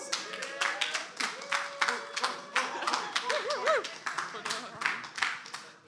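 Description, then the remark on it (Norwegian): An audience breaks into applause, many hands clapping in a dense, steady patter at moderate loudness, with a few voices calling out over the clapping. “Takk for eh, applausen,”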